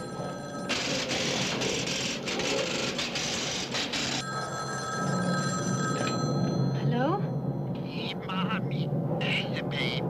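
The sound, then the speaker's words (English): A telephone bell rings loudly in a long, rattling burst, then gives way to fainter electronic tones over a steady background hum with faint voices underneath. “Your phone's ringing.”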